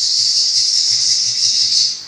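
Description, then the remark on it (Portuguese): A rattlesnake (cascavel) ready to strike shakes its rattle: a loud, steady, high-pitched buzzing hiss, likened to a pressure cooker, that holds unbroken for about two seconds before easing off slightly at the end, with no voices. “Ela reconhece que é o barulho de uma cascavel, pronta para atacar.”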